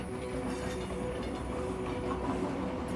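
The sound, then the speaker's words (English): A train wagon rolls steadily along the rails past trees and nature, with a continuous low rumble and faint rhythmic clatter, heard from inside the wagon at a constant, moderate level with no voices. “Now, hear yourself saying, as you drift and float on this dreamy train ride, sleep comes and it restores me and heals me.”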